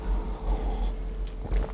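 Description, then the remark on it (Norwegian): Someone drinks right up against the microphone, with muffled sips and swallows over a low rumble, and a louder gulp near the end. No one speaks. “Hvor irriterende er ikke folk som drikker på mikrofonen Beklager det.”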